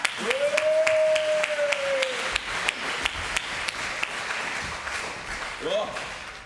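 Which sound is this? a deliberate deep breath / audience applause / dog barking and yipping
audience applause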